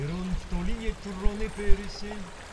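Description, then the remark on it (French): Clear water flowing in a small river a few meters away babbles steadily in the background, beside a stone school at the foot of a huge sandstone rock in the ancient city of Mieza, while a deep male voice talks over it, the water softer than the voice throughout. “dans une école de pierre claire, aux colonnes sculptées, l'écho d'une voix grave accompagne le chant de l'eau claire qui coule dans la petite rivière située à quelques mètres.”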